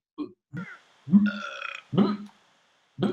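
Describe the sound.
A person imitates burping with their voice, making several short belch-like sounds followed by a longer drawn-out one, with brief pauses between them.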